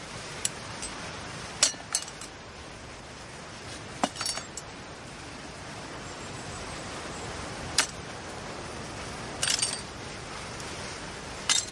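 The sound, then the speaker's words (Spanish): Sharp glass clinks and scrapes ring out irregularly over a steady outdoor hiss, several brief bright impacts spaced a few seconds apart as pieces of a broken greenhouse panel in a vegetable garden are handled and pulled free. “En el huerto uno de los paneles del invernadero está roto. Christoph retira los cristales.”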